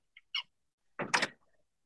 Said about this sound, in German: Ich mache ganz kurz meine Tür zu, weil meine Katze hat die Tür aufgemacht. Ich bin aber noch da.